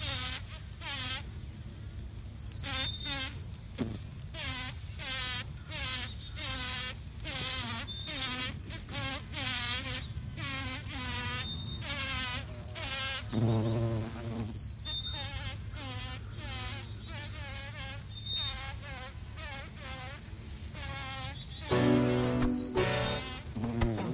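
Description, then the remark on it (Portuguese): A bumblebee (mamangava, genus Bombus) buzzes, a loud, continuous drone whose pitch wavers as it moves, with brief louder bursts and a few faint high chirps in the background. “O episódio de hoje é sobre a belíssima abelha mamangava, ou mamangaba, do gênero Bombus.”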